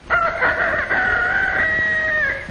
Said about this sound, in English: Very early in the morning, the rooster sends out his call, and the chickens begin to wake.